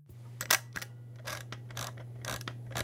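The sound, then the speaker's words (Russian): A film camera's shutter release fires with a crisp mechanical click, followed by several more clicks and brief ratcheting bursts over a low steady hum, with no voices. “Это этот затвор. Это угу. ты. И спуск, да. да. Не перемотка, но фотоаппарат.”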